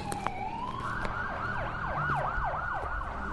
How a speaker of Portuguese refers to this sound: É quando sirenes da polícia me fazem acordar e eu esqueço por um instante que tudo terminou.